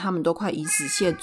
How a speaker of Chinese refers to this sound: 不好意思，猫又又在叫。